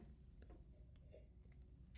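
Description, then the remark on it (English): Someone takes quiet sips of coffee from a mug, with soft slurping and small mouth noises over a low background hum, ending in a brief sharp clink as the mug hits a mic stand. “I just had a sip of Flow State Coffee, and now I just hit the mic stand with the mug.”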